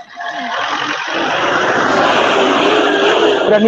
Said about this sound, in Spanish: Amigo, donde Chucha anda caminando en una pista Fórmula 1, qué weá, porque se escucha de repente pasar auto, weón, pero.